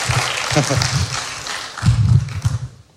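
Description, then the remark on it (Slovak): An audience applauds with dense, continuous clapping, mixed with scattered low thumps and murmuring voices, before the applause tapers off at the very end. “Bratři a sestry, potlesk.”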